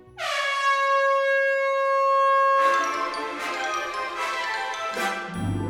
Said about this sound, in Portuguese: Praticamente em seguida soou o esperado som da buzina.